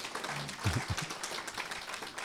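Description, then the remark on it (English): An audience claps in a steady, dense round of applause lasting a couple of seconds, with a few low voices and murmurs mixed into the crackling patter. “She has she is really the long suffering member of the family in my 12 years of politics, and I think she deserves a round of applause more than I do.”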